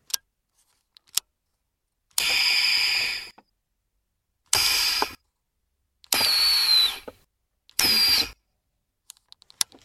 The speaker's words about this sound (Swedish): Ja, det var lite rymdinspirerade ljud det där. Det är så vackert. Vad är det för någonting? ja, det är ju berätta. värme och ventilationsanläggning, en ventilationsanläggning i Saab 900. Det stämmer.